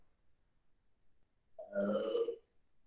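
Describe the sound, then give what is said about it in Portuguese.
A single loud, drawn-out burp sound played by an Alexa smart speaker when asked, after a moment of near silence, lasting under a second with a rough, gurgling tone. “Então, se você fala para Alexa, solte um arroto”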